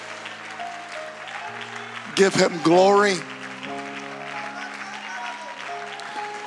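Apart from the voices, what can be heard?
audience clapping hands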